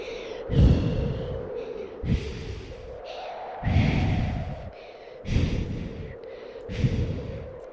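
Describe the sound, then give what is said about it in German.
A voice imitates the strong wind on a ferry deck at Elba with about five breathy whooshing gusts, each swelling and fading at a steady pace, moderately loud, with no talking. “So hörte sich der Wind dann an.”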